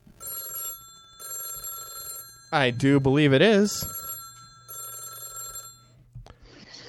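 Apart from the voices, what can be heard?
telephone ringing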